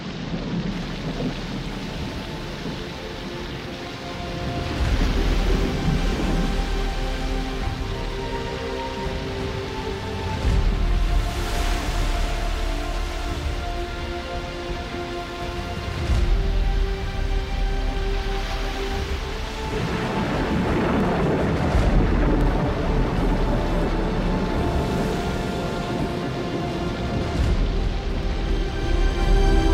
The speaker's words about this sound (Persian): سر تا پا تر شده بودیم و باران همچنان تیز میبارید